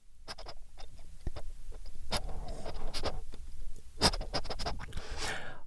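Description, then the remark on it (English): Someone imitates a truffle dog sniffing around in another person's ear, making quick, irregular snuffling and huffing bursts, with a breathier, rushing stretch near the end and no talking. “You know how I love you doing the truffle dog in my ear?”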